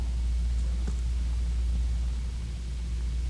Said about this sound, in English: Well, when you can hear the air conditioner hum, we, we must be really talking about some good stuff.